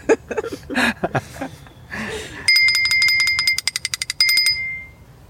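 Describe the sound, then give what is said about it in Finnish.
A homemade bell, devised by youngsters to annoy a big brother, rings in fast, rattling bursts of bright, high metallic dings. It pauses briefly before a final run that trails off. Chuckling voices come just before the ringing starts. “nuoriso oli keksinyt tämmöisen K- tota, kätevän isoveljen ärsytyskellon.”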